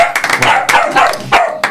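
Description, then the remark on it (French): A dog barks in a quick, excited series of about half a dozen sharp, loud yaps, with no talking. “On peut l'applaudir d'ailleurs, le chien va le faire aussi.”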